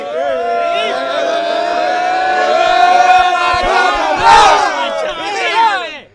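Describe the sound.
A large crowd shouts a name together on a count of three in one loud, sustained chant, many voices holding the call steadily for several seconds before it breaks into scattered yells and trails off.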